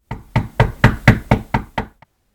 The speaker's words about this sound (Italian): Una sera un gruppo di disperati bussa alla vecchia casa.